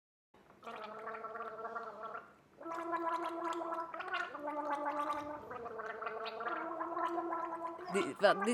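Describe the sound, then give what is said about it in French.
Guttural, wet, baby-like babbling played with saliva, gurgling voiced sounds in long sustained stretches with a brief pause, ending in a higher-pitched squeal. “Quand le, bébé babille, il vient chercher tout un panel de sons assez étonnants, euh, des sons très, euh, très, très gutturaux, des choses où on vient jouer aussi beaucoup avec la bave”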